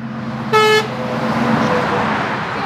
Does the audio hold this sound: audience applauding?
no